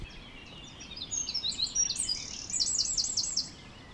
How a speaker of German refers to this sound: Ja, an der Stelle sind die Vögel am Zwitschern. Die Möwen jagen tief übers Wasser und suchen Fressen.